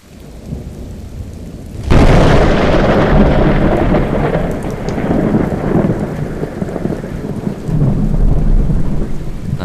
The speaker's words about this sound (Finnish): Kuulin, että ukkosta on luvassa. Minulla on meteorologiystävä Essentukissa, ja hän kirjoitti minulle noin viisi minuuttia ennen ukonilman alkamista tekstiviesti, että nyt on meille tulossa kunnon rytinät.